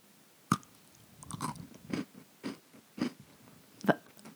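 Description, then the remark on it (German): Biting and crunchy chewing of a Christmas cookie, with about seven distinct crunches spaced unevenly over a few seconds and no talking. “Ein Weihnachtsplätzchen.”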